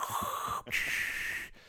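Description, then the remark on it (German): A voice imitates heavy mechanical respirator breathing: one long, hissing inhale followed by a raspy exhale, fairly loud, with the start of another breath at the end. “Ja, man hört ihn immer schnaufen, egal was ist.”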